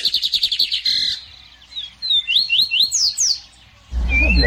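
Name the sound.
birds singing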